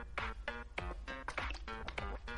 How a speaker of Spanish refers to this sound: perdón, otro trago de agua.